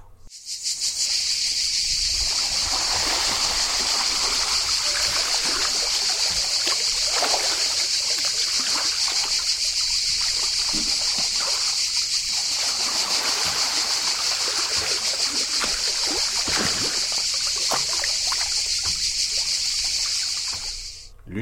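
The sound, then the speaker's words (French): A steady, high-pitched drone of cicadas runs throughout while water sloshes and splashes as someone bathes in a swimming pool in the south of France in the sun, recorded in 2012, with soft trickles and irregular splashes beneath the insects. “Commençons par ce phonore, que j'ai réalisé en 2012, dans lequel je prends un bain dans une piscine du sud de la France.”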